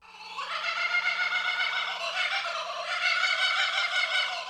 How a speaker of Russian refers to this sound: Да, это птица, которая умеет смеяться. И очень часто в Австралии люди просыпаются под смех кукабары.